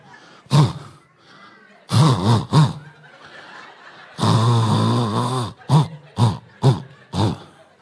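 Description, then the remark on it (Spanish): A voice imitates snoring in a Morse code pattern: short snorts, a pair, one long drawn-out rasping snore, then a quick run of short snorts, loud. “Dígame los que roncan en clave Morse.”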